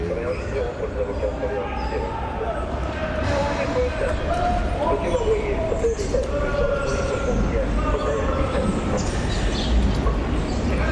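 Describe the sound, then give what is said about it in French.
A train rumbles past, a loud, steady roar of wheels and rail noise that fills the whole stretch, with voices faintly audible underneath. “je suis du côté Mirador, il y a un train qui passe, euh, il y a des, trains qui passent à peu près les, toutes les 5 minutes, euh, quasiment jour et nuit”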